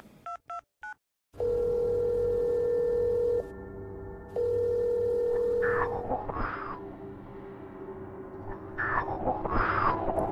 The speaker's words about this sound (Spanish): como fallando el teléfono.